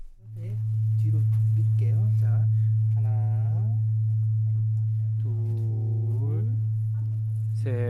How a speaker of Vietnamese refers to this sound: Chỉ cần chạm khẽ chiếc dùi vải là chuông đã phát ra những tiếng rền vang.